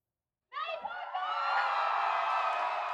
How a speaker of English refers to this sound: Mattie Parker gave her victory speech to a crowd of cheering supporters at a West 7th bar